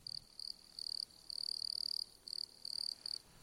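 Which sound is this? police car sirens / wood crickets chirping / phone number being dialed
wood crickets chirping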